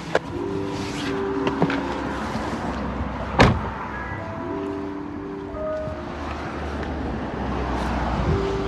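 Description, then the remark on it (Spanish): A driverless taxi pulls away outside a park in San Francisco on a fine day, its steady electric whir and road rumble blending with ambient outdoor noise, broken once by a sharp click partway through. “ok, ya se fue, estoy fuera en el parque, hace súper bien, voy a pasear aquí un rato.”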